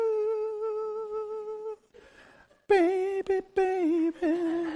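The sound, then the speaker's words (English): A solo voice imitates the luring call of the mythical sirens, women on an island who lured passing sailors: a long, steady sung note, a brief breathy pause, then a wavering, crooning phrase with loud vibrato and short words woven in. “as they would go past certain islands, they knew to put wax in their ears, because near this island they had heard that there are sirens, women on there, who have a siren call. It went like this.”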